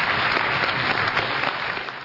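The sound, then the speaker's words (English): An audience claps in sustained, dense applause for two debaters after a debate, a steady wash of many hands that stays loud throughout before easing slightly at the end. “Thank you, gentlemen, and I think we should uh, offer a round of applause to both of our debaters for a vigorous and yet collegial debate.”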